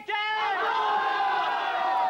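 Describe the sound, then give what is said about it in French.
A crowd of voices in Caen roars together in one sustained, angry shout of death chants against Georges Bayeux, the department's procureur général syndic, whom the crowd massacres. The yelling swells right from the start and holds steady without a break. “Jusque dans sa ville de Caen, où quelques mois plus tôt, le procureur général syndic du département, Georges Bayeux, avait été massacré par la foule.”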